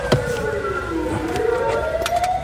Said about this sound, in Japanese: 消防車が通っていってますね。